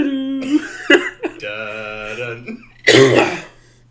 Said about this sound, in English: Sorry, I'm coughing from my respiratory infection